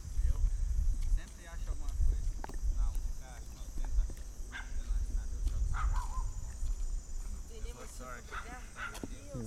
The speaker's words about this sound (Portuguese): Agora eu tô ouvindo um cachorrinho latindo.